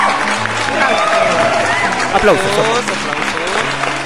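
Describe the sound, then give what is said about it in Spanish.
Loud, continuous applause from a crowd, a dense rush of clapping with voices shouting and cheering through it, sustained for the whole few seconds, on the show Cahuí. “Más aplausos.”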